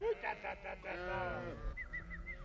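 A goat bleats, a few short stuttering notes rising into a long, quavering cry, followed by several quick, faint high chirps.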